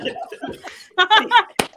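human body sound, hand slapping knee

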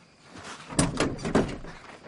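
household object, door opening

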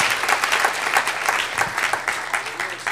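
crowd, audience applauding

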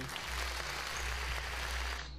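sound effect, played applause sound effect

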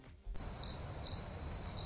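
sound effect, cricket chirping sound effect

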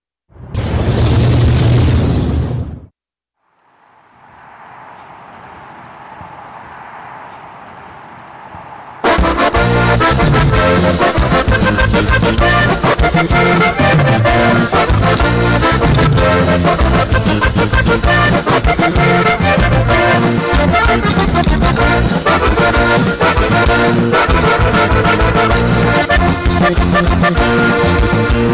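norteño band song playing

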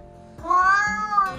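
animal, house cat meowing

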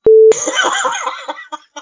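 signal or alarm, censor beep

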